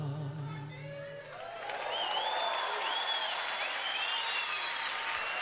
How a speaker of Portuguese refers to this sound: É legal porque as pessoas gritam, né, nessa gravação feita ao vivo.